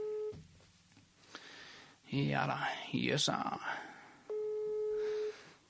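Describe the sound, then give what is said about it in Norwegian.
A steady electronic ringback tone sounds twice on an outgoing phone call, each long buzzy tone separated by a pause, with people talking briefly in between. “Eh, så da ringer vi til han.”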